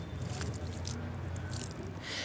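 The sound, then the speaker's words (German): Soft squishing of damp soil being pressed around a plant set into a freshly dug hole, followed by a brief patter of water poured to water it, over a steady low outdoor hum. “Loch ausheben, Pflanze einsetzen, mit Erde bedecken, gießen, fertig.”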